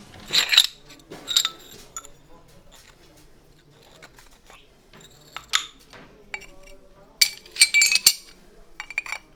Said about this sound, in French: On pourrait peut-être mettre nos auditeurs dans l'ambiance de ces travaux en leur faisant écouter une prise de son qui date du mois de juillet